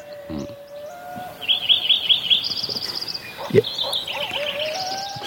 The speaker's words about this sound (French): And there is a woodpecker. Et là, il y a un pivert.